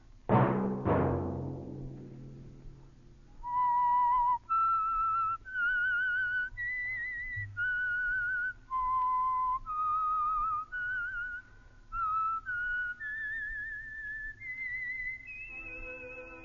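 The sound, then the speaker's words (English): A clear whistled melody of steady held notes, each with a distinct start and stop, rises and falls through a short tune after a brief loud burst at the start; it is the whistled theme of the radio program The Whistler, brought by the Signal Oil Company. “Let that whistle be your signal for the Signal Oil program, The Whistler, each Sunday night at this same time.”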